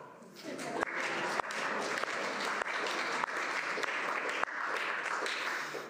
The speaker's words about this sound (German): Wir dürfen nochmal klatschen.